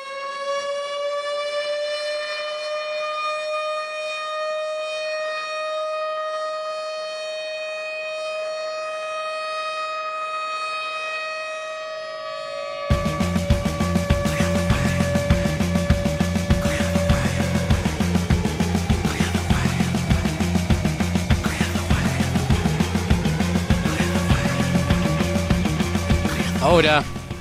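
A sustained, siren-like wailing tone rings out alone for several seconds before a loud, dense rock song by an American supergroup formed in 2016 bursts in with pounding drums and heavy distorted guitars driving a steady beat.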